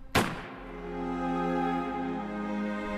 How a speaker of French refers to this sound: Robert Ford vient d'armer le chien de son revolver. Jesse se retourne, mais le coup de feu est déjà parti.